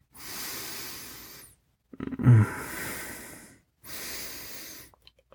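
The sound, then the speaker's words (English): Three long, deep sniffing inhales through the nose, airy, with a short murmur during the middle breath and brief pauses between them. “I'm inhaling the scent.”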